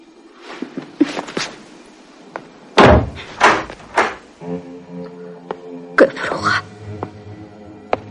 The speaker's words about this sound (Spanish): ¿Puedo cerrar la puerta?